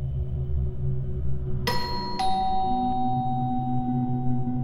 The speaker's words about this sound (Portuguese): Em 1993, a campainha da residência da família Fritzl toca.